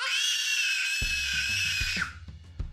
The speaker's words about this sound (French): Il la remit en place et n'eut rien le temps de faire d'autre lorsqu'il entendit Emma hurler.